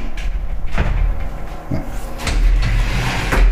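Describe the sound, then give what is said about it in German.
Two shower cabin doors sliding open with a few clattering knocks and rattles over a low rumbling background; no one speaks. “Wir öffnen die Duschkabine.”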